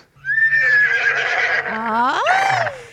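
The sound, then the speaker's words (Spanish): A loud horse neigh fills about three seconds: a long shrill whinny that wavers, then swoops upward into a quavering, descending finish, with nothing else around it. “mi marido se cree caballo, se cree caballo todas las mañanas, se la pasa relinchando”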